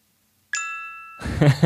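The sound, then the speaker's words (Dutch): A single bright chime from the Wunderlist to-do app, played when a task is clicked off, rings out with a sharp onset and several clear tonal partials, fading smoothly before a person starts talking over its tail. “Dus je wilt het gevoel hebben, ik kan iets aanklikken en ik hoor een plingetje.”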